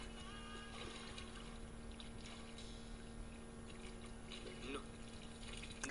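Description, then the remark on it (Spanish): Water is poured onto someone's back, trickling steadily with soft splashes and drips against a constant hiss, while faint murmuring voices sit in the background. “Le tira agüita en la espalda.”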